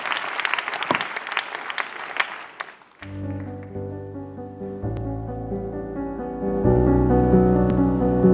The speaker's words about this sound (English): Clap your hands and let's watch the next testimony.